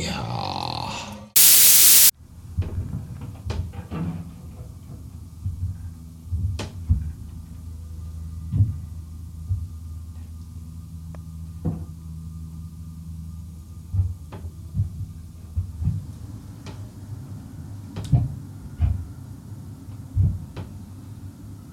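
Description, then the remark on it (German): Odd low rumbling and groaning from a home heating system, with scattered knocks and clicks over a steady hum, broken by a brief loud burst of static near the start. “Ich weiß jetzt nicht wirklich genau, woher diese seltsamen Geräusche aus meiner Heizung kommen, aber Achtung, jetzt kommt ein Musikerwitz.”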